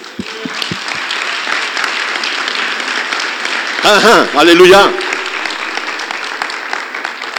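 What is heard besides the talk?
audience applauding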